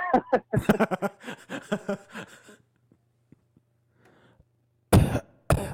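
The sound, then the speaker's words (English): A raspy run of throat clearing and hacking bursts, then a short quiet pause with faint clicks, followed by two sharp, loud coughs at the end. “That's what that makes the cough more real.”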